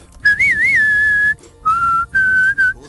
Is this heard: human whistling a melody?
yes